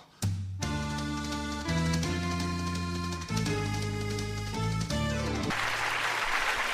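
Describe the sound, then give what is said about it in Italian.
A song's final sustained chords ring out, then give way to a brief burst of audience applause and clapping over the last second or so. “Applauso anche da parte nostra.”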